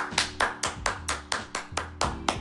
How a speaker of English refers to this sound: I want y'all to give a round of applause